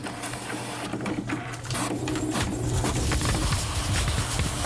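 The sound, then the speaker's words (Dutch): A machine prints a special 'future' edition of De Groene Amsterdammer dated 26 October 2023, running steadily with a mechanical whir and a low hum, with rapid rhythmic clicking and rattling as paper sheets feed through and roll out onto the floor, fairly loud throughout with no talking. “En hier ehm, rollende rollen de papiertjes op de grond.”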